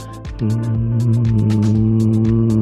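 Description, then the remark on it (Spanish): A voice imitates the hum that some USB microphones produce, a single steady, low, buzzing drone held for over two seconds at an even, fairly loud level, with faint crackly ticks underneath. “O si no, algunos tienen un hum.”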